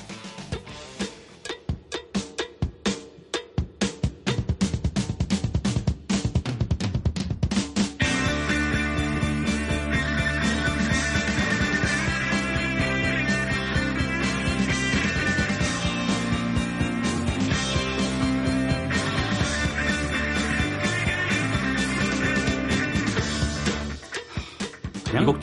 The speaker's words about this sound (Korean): 하드록 기타 정수를 계속 맛보고 계십니다. 이번에는 73년 곡입니다.